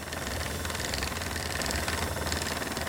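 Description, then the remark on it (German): A spinning wheel running fast on wool, giving a steady, machine-like whir with a low, rapidly pulsing hum that continues evenly throughout, with no voices. “Ich bin eine relativ schnelle Spinnerin. Das heißt, ich könnte innerhalb von zwei Stunden schon einen Knoll fertig kriegen.”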